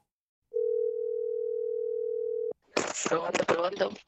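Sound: whatsApp call ringing tone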